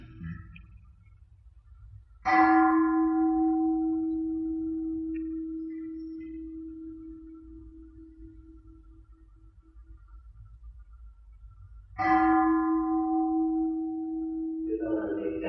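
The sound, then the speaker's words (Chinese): A meditation bell is struck twice during meditation practice, about ten seconds apart; each strike rings out clearly and leaves a low, steady hum that slowly fades. There is no talking. “听这你钟声玩一玩，别让心僵硬。”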